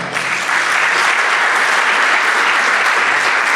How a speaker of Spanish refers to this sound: Por ejemplo, vamos a hacer una experiencia acá. Eh, vamos a aplaudir, a ver, vamos a aplaudir, aplaudan.